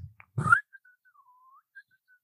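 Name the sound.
whistled bird call imitation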